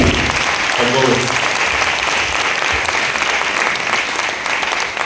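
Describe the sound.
Sustained applause from a crowd, a dense steady wash of clapping that fills the whole stretch, with a brief voice rising over it near the start.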